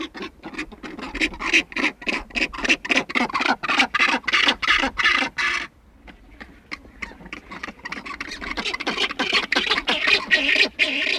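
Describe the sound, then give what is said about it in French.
Rockhopper penguins calling in a rapid run of loud, harsh, rasping pulses, then after a brief lull a denser, overlapping chorus of throaty cries. “Donc à nouveau des sons étranges. Ce sont les oiseaux, les gorfous sauteurs”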